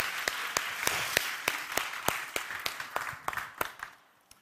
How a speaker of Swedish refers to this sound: Tack så jättemycket lovsångsteamet. Vi kan ge dem också en stor applåd.